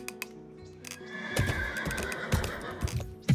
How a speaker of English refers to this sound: When the horses finally pulled up to the house, I could see they'd been ridden pretty hard.